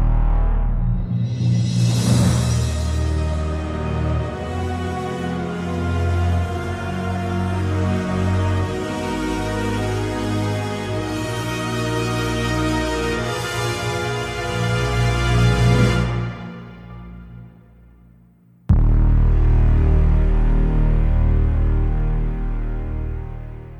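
A French rap song plays loud and full, with heavy sustained bass and dense layered backing, then briefly drops out near the end before resuming at similar volume.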